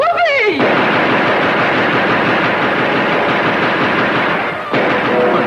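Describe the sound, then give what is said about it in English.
A loud, sustained barrage of rapid gunfire roars for about four seconds, dense and continuous like automatic weapons, after a brief falling cry at the start. “Christopher Columbus would being shot at!”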